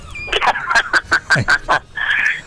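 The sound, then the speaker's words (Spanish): A chicken clucks in a quick rhythmic series of about eight sharp clucks, ending in a longer drawn-out squawk, with no talking over it. “Te digo, estoy rodeado, estoy, en la radio gallina”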